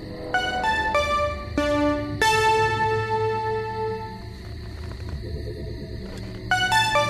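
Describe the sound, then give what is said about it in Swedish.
Electronic tones from a mini synthesizer play through a loudspeaker system mounted on top of a car: a few quick stepped notes, then one long, bright sustained tone, ending with another short burst of notes over a low background rumble. “Tur att jag har installerat högtalarsystemet ovanför bilen och har den här minisynten här.”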